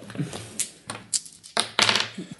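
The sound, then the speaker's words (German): A handful of sharp, hard clicks and clatters, loud, in quick irregular bursts, as two dice are rolled in a game and tumble and settle on a table; no voices. “Haben wir zwei Würfel. Das ist jetzt nur so Mittel.”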